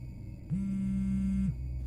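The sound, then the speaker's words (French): A phone vibrates in a pocket with a single steady, low buzz lasting about a second, sharp on and off, as an app sends a notification, standing out clearly over a quiet background rumble while walking along a street in the evening. “Un soir, alors que je marchais dans la rue, en serrant mon manteau, j'ai senti mon téléphone vibrer dans ma poche.”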